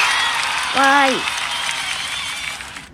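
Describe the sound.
Steady crowd applause fills the whole stretch, a dense, even patter of many hands, with a short high voiced cheer rising briefly near the start before the clapping fades out.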